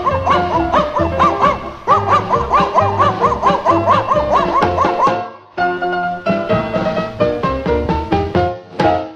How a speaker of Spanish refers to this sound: cuando salía a pelear los perritos del lugar se ponían a ladrar.